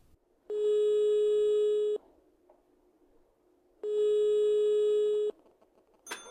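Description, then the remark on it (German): Two long, steady ringback tones at a single mid pitch sound over a phone line, each about a second and a half, separated by a pause, before a click as the call is picked up. “Ich hoffe, ich rufe nicht zu früh an.”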